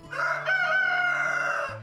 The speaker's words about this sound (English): The sound of our rooster crowing worked its way into my brain.